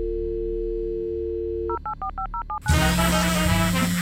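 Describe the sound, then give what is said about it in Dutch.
A steady dial tone gives way to a quick series of about seven touch-tone beeps as a phone number is punched in to call someone selling a Google Home on a marketplace, followed by a louder, noisier line connecting with a low hum. “En zijn telefoonnummer staat erbij.”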